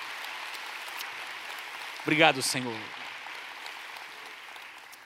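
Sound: audience applauding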